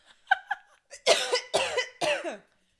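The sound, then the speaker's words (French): A person coughs three times in quick succession, loud, preceded by a couple of short throat noises. The harsh bursts are evenly spaced about half a second apart. “Pourquoi c'est à chaque fois qu'on filme le podcast que je dois tousser”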